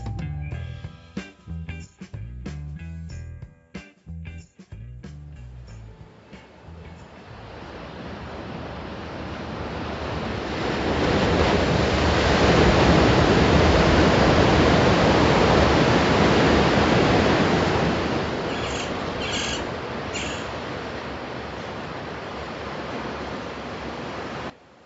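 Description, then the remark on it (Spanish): Pacific Ocean surf rolls in with a loud, rushing roar that swells to a peak and slowly recedes, after a few seconds of choppy, splashing bursts; no voices. “El Océano Pacífico es la extensión de agua más grande en el mundo y abarca desde el Ártico Norte hasta el sur de la Antártida.”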